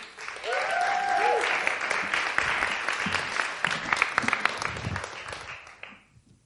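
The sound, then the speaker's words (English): A crowd breaks into sustained applause welcoming a youth mission group called the Youth Project, dense clapping for several seconds, with a few cheers or whoops near the start before the clapping tapers off. “And so could we just give them a round of applause?”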